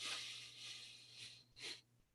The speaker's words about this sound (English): Um, you know, it's you can see it online, but you basically take a deep breath in over four seconds, breathing through your nose, and you count to four, like,